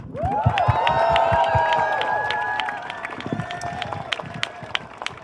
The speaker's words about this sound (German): Und danke euch fürs Hiersein und gemeinsam die Demokratie verteidigen. Ein Applaus für uns.